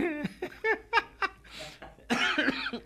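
A loud coughing fit in a studio: several quick voiced hacks in a row, then longer raspy, breathy coughs, with a laughing quality mixed in and no talking.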